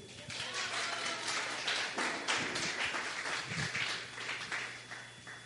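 An audience applauds a speaker, a dense, even wash of many hands clapping that holds at a fairly constant level for several seconds, with a low electrical hum underneath.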